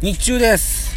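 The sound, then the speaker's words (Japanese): A steady low rumble of car interior noise, with the air conditioning switched on, hums beneath a man's voice as he speaks briefly, constant and fairly loud throughout the second; recorded inside a car on a very hot day. “エアコンのね、エアコンちょっとつけさせてくださいね。車で撮ってます。”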